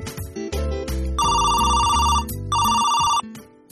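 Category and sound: signal or alarm, telephone ringing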